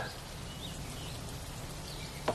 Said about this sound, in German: Wolken weit unten. Regen. Großartig. Gerade schön zum Wandern.